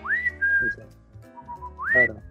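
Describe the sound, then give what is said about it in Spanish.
A person whistles, imitating a grandfather's signal call announcing his arrival home: a quick rising note held steadily, a brief lower wavering phrase, then a second upward-sliding whistle. Fairly loud, with no talking. “siempre hacía como, como, un silbido de que, de que llegué, ¿no?”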